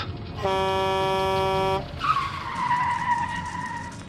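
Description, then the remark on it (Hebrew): A loud, steady truck horn blares for over a second, then cuts out into a long, wavering screech of brakes and skidding tires that continues to the end, intense. A truck driver looking at his phone brakes too late on a dark, rainy highway in a storm, near a Toyota stopped at the roadside. “נהג משאית בדיוק הסתכל בפלאפון שלו. הוא שם לב מאוחר מדי. הוא סתם מהר, אבל לא מהר מספיק.”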